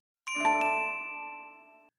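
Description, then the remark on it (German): A PlayStation 3 game console startup chime rings out alone: a bright, layered electronic tone that swells quickly, then slowly fades away over about a second and a half. No one speaks. “Aber die PS3 hatte auch so einen, so, ein, so ein Dring, so, so ein Klingeln.”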